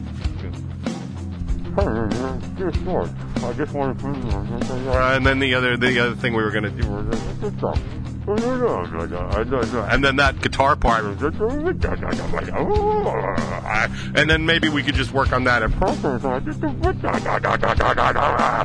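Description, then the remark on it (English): A man talks in a deliberately muffled, warbling voice, imitating a garbled bad phone connection, with continuous speech that swoops and distorts for nearly twenty seconds. “And that is literally what a phone call from George sounds like”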